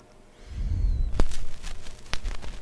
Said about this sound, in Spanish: Hoy los surcos y el rascado, que no os mentimos, es vinilo de verdad.